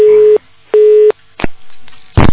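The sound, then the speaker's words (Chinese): A telephone call tone while dialing sounds twice as steady, mid-pitched beeps of about a third of a second each, followed by a few sharp clicks and a short burst of line noise. No one speaks. “看他来几下吧，再来再来几下，再不行我就挂掉，没办法。嗯，其实有些电话就是这样的。”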